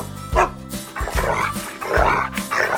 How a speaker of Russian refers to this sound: Вот и Алтай, мой верный пес, с вами поздоровался